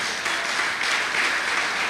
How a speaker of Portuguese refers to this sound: Você crê? Você crê? Você crê? Então você pode aplaudir ao Senhor neste momento.